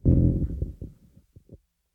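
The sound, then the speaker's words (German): A microphone is dragged and bumped across a table toward the speaker, up to the table's edge: a loud, low rumbling scrape at first, then a few separate dull thuds that fade out. Nobody speaks. “Du musst, kannst du einmal das Mikro ein bisschen näher zu dir, also an den ja. Tisch ranpacken?”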